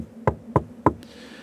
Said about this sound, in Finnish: Eräänä iltana, kun Ivan ja Maria olivat taas kahdestansa kotona, ovelta kuului koputus.